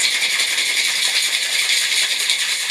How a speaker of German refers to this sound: Jetzt kommt wieder der pinke Shaker zum Einsatz.